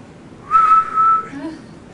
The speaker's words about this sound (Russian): Я извиняюсь, что я присвистнула, потому что практически все портится.